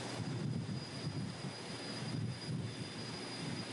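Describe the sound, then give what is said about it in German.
A warship's 25,000-horsepower gas turbine roars steadily as the ship picks up speed, a dense rumbling rush with a thin high-pitched whine riding on top, holding an even, loud level throughout with no voices. “dann können die Soldaten hier unten hingehen, mit diesem Hebel direkt die Gasturbine steuern und damit ist dieser Hebel das Gaspedal für 25.000 PS.”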